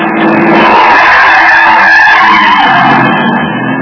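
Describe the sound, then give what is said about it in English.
Loud, sustained screech of car tires skidding on pavement on Marlin Boulevard as the driver cuts the wheel to miss a man who darted into the street, a harsh squeal lasting several seconds with engine noise underneath, intense before easing slightly at the end. “I cut the wheel, climbed the far sidewalk, managed somehow to keep from turning over, and missed the jaywalker by inches.”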